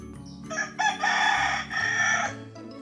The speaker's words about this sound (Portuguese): O galo cantou ele veio avisar.